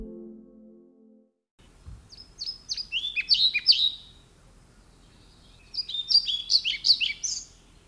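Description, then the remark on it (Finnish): A European pied flycatcher sings in spring, two short, bright phrases of high chirping notes with a pause between them, after a brief low tone at the very start. “Tänä keväänä kirjosiepot ovat kotiutuneet talvehtimisalueeltaan trooppisesta Afrikasta hieman myöhässä.”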